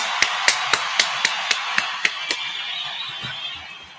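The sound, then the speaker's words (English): A round of applause for 583 Expressions: about ten sharp, evenly spaced claps ring out over a steady hiss of clapping, and the whole sound fades away toward the end. No one speaks. “Get that, that round of applause continuing to go for 583 expressions.”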